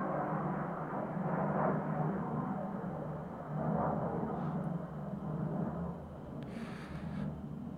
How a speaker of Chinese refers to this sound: 又是一辆飞机